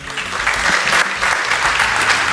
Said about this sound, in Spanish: Rosa, Rosa ya la aplauden antes de que hable, por si acaso no está en condiciones de hablar.